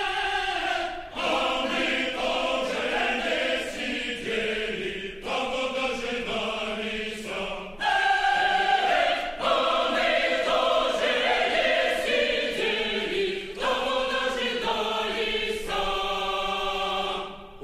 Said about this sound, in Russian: Вот это хит начала 30-х. Давайте чуть-чуть.